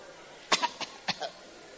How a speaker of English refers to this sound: or sometimes the person will develop a special cough. a cough which is not there when you are not in the presence of the person.